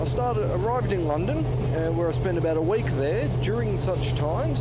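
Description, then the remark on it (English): A steady, loud low engine drone hums continuously beneath a man talking on board a ferry returning from Ireland to London, with a constant rumbling hum filling the low end throughout. “sorry, it's a bit loud on the ferry.”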